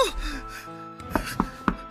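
Three sharp knocks on a door, evenly spaced in a quick rhythm, follow a brief breathy vocal sound like a gasp or moan at the start.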